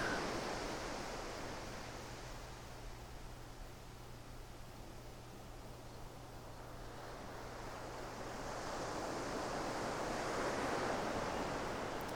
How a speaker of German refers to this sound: der Moment, wenn die Wellen den Strand berühren, während sie nach vorne gespült werden.